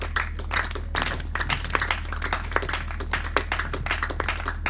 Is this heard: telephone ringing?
no